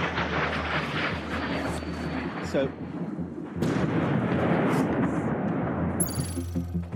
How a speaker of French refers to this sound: Une explosion suivie de nombreux autres. Ce matin, une série de missiles russes s'est abattue sur Kiev, des frappes qui visaient les infrastructures stratégiques de la capitale, mais surtout des lieux publics comme cette université,